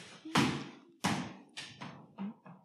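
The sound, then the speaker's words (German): A stress ball thrown wildly across a room thumps down and bounces across a hard floor. There is a series of about six dull thuds coming quicker and softer as it loses energy, with no talking. “Kann ich noch einmal den Stressball wild werfen durch den Raum?”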